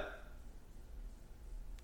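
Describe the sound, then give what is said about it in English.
A short, quiet burp from drinking beer at the very start, a brief throaty gulp that fades quickly into a low, steady background rumble with no talking. “my grandma used to say beer makes me burp, so she's right. It does me too.”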